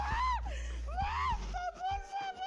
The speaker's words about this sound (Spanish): De fondo, una mujer grita basta sin cesar.